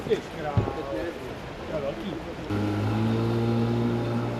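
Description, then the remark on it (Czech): The engine of a firefighters' powerful motorboat on a flooded river starts up midway and holds a loud, steady, low droning hum through to the end, after a brief stretch of muffled voices and outdoor noise. “Hasiči se silným člunem tu sice už jsou, ale policejní nadporučík je v zápětí odvolává na jinou misi.”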